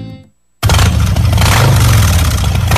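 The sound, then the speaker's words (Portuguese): A Harley-Davidson motorcycle engine suddenly roars to life after a brief silence, revving loudly and steadily with a deep, rumbling throttle that holds strong throughout. “A Santos Harley Davidson vai te ajudar a conquistar novos lugares e descobrir um mundo novo.”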